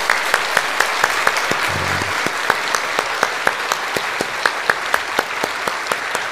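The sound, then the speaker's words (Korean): A church audience claps steadily together for Teacher's Day, applauding to encourage the church's small-group leaders. It is a dense wash of many hands with sharper individual claps popping out, continuing at an even level throughout without any voices. “우리 수고하시는 마을장님들, 목자님들 모두를 위해서 우리 격려의 박수합니다.”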